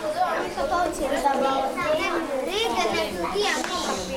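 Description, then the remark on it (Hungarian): Many children's voices chatter and call out at once, a dense, lively babble filling a small, crowded space, steady throughout. “Ó, oh, hát nem lesz csempészés, mert nyakig járok a gyerekekbe. Egy kicsit kicsi a hely.”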